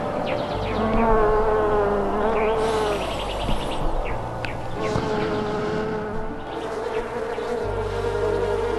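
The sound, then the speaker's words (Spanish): A dense, steady drone of many bees buzzing at a beehive deep in a forest, overlapping wingbeats rising and falling continuously with no voices. “El zumbido de abejas”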